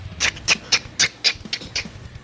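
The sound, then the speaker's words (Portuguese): A voice imitates the bones of a creature cracking as it starts to move, with about seven sharp, crackling bursts in quick, slightly uneven succession and no spoken words. “Conforme ela vai se mexendo, você escuta só aqueles estralos de osso, tá ligado?”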